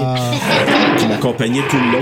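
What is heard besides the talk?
domestic cat vocalizing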